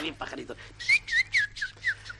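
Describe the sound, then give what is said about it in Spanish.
A person whistles quick, bright bird-like chirps, about five short rising-and-falling tweets in a steady rhythm, fairly loud, after a brief murmur of voice at the start. “Por cierto, me cuentan mis ah, pajaritos.”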